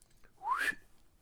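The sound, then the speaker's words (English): A single short human whistle rising in pitch, clear, standing alone against a quiet background. “And he whistled once”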